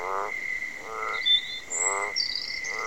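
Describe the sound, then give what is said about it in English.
Frogs croak in a steady rhythm, four evenly spaced rasping pulses, over a continuous high insect drone with faint chirps layered above. “Think of it like this if birds are singing their high notes, the frogs are croaking away in the lower frequencies, and the crickets and other insects are making persistent, percussive, or droning sounds.”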